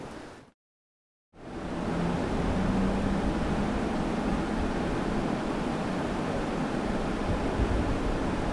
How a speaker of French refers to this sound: Tout au long de la rivière. En plus, on, entend le bruit de la rivière juste à côté.